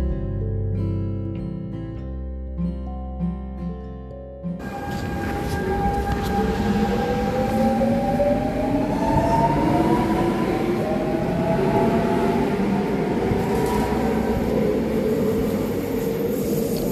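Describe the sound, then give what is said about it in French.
A few seconds of music give way to the loud, steady rumble of a ride on the RER E suburban commuter train, with metallic wheels squealing in long rising whines. No one speaks. “ouais, c'est ça mon quotidien. Prendre le RER e le matin et rentrer chez soi.”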